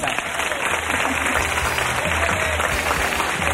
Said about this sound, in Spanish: Un aplauso para ellos.